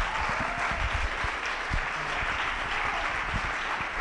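Sustained audience applause fills the whole stretch, a dense wash of many hands clapping at a steady loud level, with no voices standing out.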